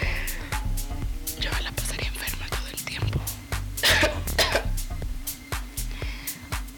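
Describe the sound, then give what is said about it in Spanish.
Coughing and throat clearing from a person who is ill, a series of short harsh bursts in quick succession, some breathy and whisper-like, over a steady low background hum. “Discúlpenos, de verdad, por la enfermedad.”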